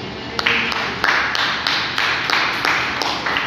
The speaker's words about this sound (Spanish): ¿Quién es? Jesucristo. Le da un aplauso al Señor Jesucristo.